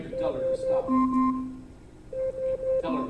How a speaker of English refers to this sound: Okay, so there's our alarm.